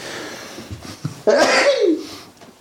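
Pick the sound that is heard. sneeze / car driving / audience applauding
sneeze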